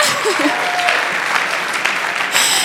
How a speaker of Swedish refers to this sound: Så, ja, det går bra att applådera.